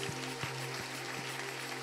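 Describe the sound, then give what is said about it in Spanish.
An audience claps steadily together as loud applause to God during worship, a dense, even patter of many hands that sounds muffled, with a low hum underneath and no voices. “Si están aquí, eleve un aplauso fuerte a Dios.”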